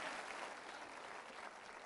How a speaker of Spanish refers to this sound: Date un aplauso por eso, dítelo todos los días.